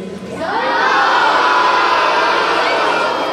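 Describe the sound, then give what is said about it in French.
A large audience shouts back answers all at once to being asked whether they are nervous, a loud, sustained roar of overlapping voices mixing yes and no, rising quickly and holding for about three seconds. “C'est mitigé, j'entends des oui, j'entends des non.”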